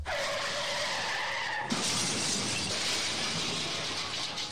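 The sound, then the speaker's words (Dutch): A loud segment jingle plays from a soundboard with no talking: a screeching, skid-like tone for under two seconds, then a sudden burst of harsh, crashing noise that keeps roaring. “Hé, hey, heb ik gewoon ook op mijn mengpaneeltje staan.”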